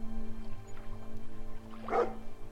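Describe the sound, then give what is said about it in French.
A single short dog bark from a dog moving away rings out near the end, moderately loud against a steady low hum and faint background noise, with no voices. “Le chien s'était éloigné en aboyant.”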